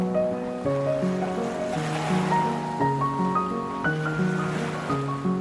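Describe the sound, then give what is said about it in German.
Gentle ocean waves wash onto the shore and recede in slow, soft surges beneath calm, sustained music with slowly shifting tones; the surf stays in the background, steady and unhurried. “Gehst immer weiter, bis deine Füße im Ozean stehen und du spürst das erfrischende, kalte Nass des Meeres, was deine Füße umspült.”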